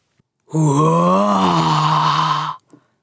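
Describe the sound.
A voice lets out a long, loud, drawn-out moaning roar lasting about two seconds, steady and wavering slightly in pitch, imitating a menacing, growling darkness, followed by a soft breath.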